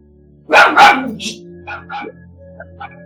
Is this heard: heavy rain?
no